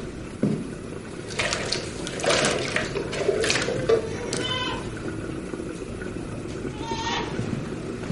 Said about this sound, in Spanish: La novicia, al oír el llanto del bebé, se asoma por la ventana y ve a la Madre Superiora salir del convento con la niña en una cesta.